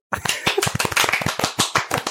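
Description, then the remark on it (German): A small group claps briefly for the Misfits group, a quick patter of sharp, overlapping hand claps in an uneven rhythm that stays fairly loud for about two seconds, with no talking. “Einmal Applaus für unsere Misfits-Gruppe hier.”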